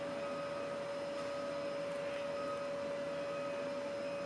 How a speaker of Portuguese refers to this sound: Eu estou ouvindo um caminhão. Vocês não vão acreditar. Hoje é sábado. Estão ouvindo? Vocês estão ouvindo o caminhãozinho? Inacreditável. Eu estou gravando num sábado para não ter o barulho do caminhão. Mas ele veio.